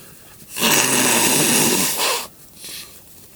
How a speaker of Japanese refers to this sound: えっとちょっと鼻かんでいいはい